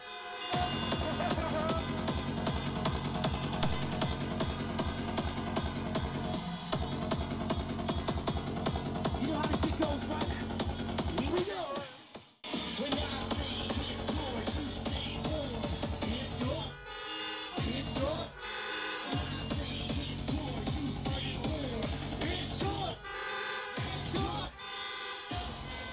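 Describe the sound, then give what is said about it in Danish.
Car horns honk along with a loud DJ set, the DJ playing to the cars and the cars playing along, blaring sustained tones layered over thumping music, with a few short breaks where everything drops out before the horns and beat return. “Altså, DJ'en spiller op til bilerne, og bilerne spiller med.”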